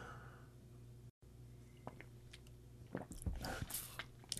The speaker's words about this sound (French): Voyons, on met la, la gorge chèque à matin, là. Une petite gorgée.